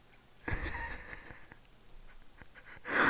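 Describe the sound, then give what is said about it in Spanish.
A sudden, sneeze-like snort bursts out, sharp and breathy, followed by quieter snuffling and faint clicks, with another breathy burst rising at the very end. No one speaks. “Porque además escucho un como un mendigo estornudo.”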